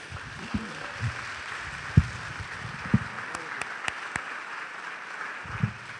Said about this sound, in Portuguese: Aplaudir o nome de Jesus, amados.